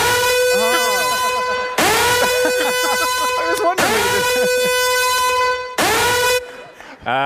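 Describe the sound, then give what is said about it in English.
A siren horn sound effect blares in four long bursts with brief gaps, its steady harmonic tone ringing like a siren while voices talk underneath. “You didn't tell me about a siren that was going to”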